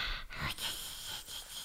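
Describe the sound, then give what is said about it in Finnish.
A person softly imitates how they snore when sleeping, with a short run of breathy, nasal snorts and gasps, fairly quiet, with no speech alongside. “Kun mä nukun, se kuulostaa tältä.”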